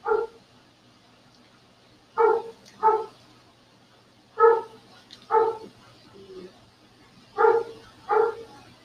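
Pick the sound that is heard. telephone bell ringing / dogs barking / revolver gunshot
dogs barking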